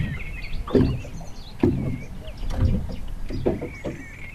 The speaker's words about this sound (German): Bei Wind schlagen die Wellen an den Bug, da wo unsere Schlafkabine ist, und das Boot reißt am Anker. Das kann in der ersten Nacht furchterregend sein, in der dritten Nacht aber gluckst und schaukelt uns das Boot ganz gemütlich in den Schlaf.